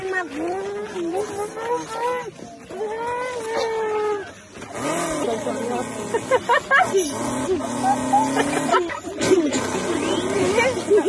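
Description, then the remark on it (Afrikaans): A small child, asked to imitate a Ford Mustang, makes a revving car engine sound with loud growling hums that rise and fall in pitch over several bursts, ending in sputtering, rattling revs. “En toe vra ek tog of vir hierdie een ouetjie, hoorie so, uh, ehm, maak vir my 'n Ford Mustang na. Julle hoor net hier.”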